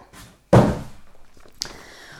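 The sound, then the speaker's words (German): A HelloFresh delivery cardboard box is set aside with a single hollow thunk that fades over about a second, followed by a faint, brief tap. No one speaks. “So, der Karton kommt zur Seite”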